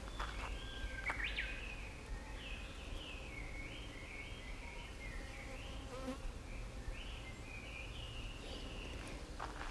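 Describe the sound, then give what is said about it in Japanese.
A steady, dense buzzing of many bees around many blooming purple flowers resembling radish flowers fills the scene continuously, with individual insects drifting in and out, and a few faint bird chirps in the background. “なんかね紫のねなんとか大根みたいな花がいっぱい咲いてるからかなすごいあの葉音がめっちゃ聞こえる”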